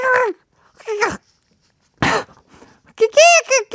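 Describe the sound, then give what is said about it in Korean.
A voice imitates monkey chatter in several short, squeaky, high-pitched bursts with brief pauses, ending in a rapid string of shrill, warbling cries, as a clue in a proverb quiz on the radio show Lee Gi-kwang's Gayo Gwangjang; the answer was 'Even monkeys fall from trees'. “아, 두 번째 속담은요, 바로바로, 바로 원숭이도 나무에서 떨어진다.”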